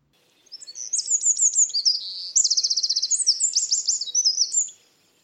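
A single songbird sings a rapid, varied phrase of high chirps and trills lasting about four seconds, clear, with no talking or other sounds around it.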